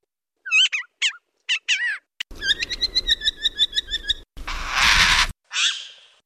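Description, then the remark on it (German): A series of Siberian jay alarm calls: several short, sharp whistled notes, then a rapid chattering run and a harsh, hissy screech, all loud with no talking. “Genau das fanden Forscher im Jahr 2009 bei sibirischen Unglückshähern.”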